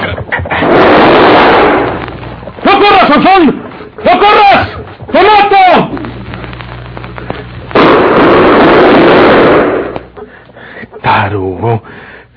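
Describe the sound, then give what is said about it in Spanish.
Two loud, sustained bursts of rapid gunfire, one at the start and one later, with a man's urgent shouting in the gap between them. “Y hice esos disparos buenos para nada porque no le dice cobarde.”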